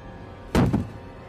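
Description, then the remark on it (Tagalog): Two heavy, hollow thuds land in quick succession as a grandmother inside a bedroom bangs on the wooden door, loud against quiet, with no voices. “Tuloy-tuloy ang pagsusumigaw ni Lola sa loob ng kwarto habang kinakalampag ang pinto.”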